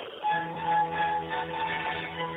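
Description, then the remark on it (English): A Verizon phone ringback plays over a narrow, tinny line while a call connects: a steady, tonal musical passage starting after a brief pause and continuing at even loudness, with no one talking. “Please enjoy this Verizon ringback while your party is reached.”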